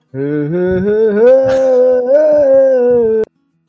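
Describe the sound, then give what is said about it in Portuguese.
A single wordless aboio, a sung cattle-herding call, holds one loud, steady voiced note for about three seconds, sliding gently upward in pitch before cutting off abruptly. “Eu solto um aboio.”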